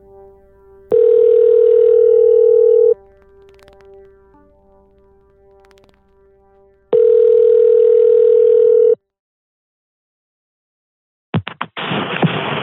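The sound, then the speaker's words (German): A telephone ringback tone sounds twice while calling an official at a government authority, each a steady two-second buzzing tone separated by a pause, followed by a brief clatter and noisy burst as the line picks up. “Frau Flöß von der Behörde ist also demnach das wichtigste Telefonat, was ich bisher geführt habe”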